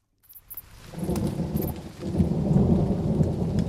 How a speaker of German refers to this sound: Wenn es so regnet, schlechtes Wetter gibt, dann donnert es oft.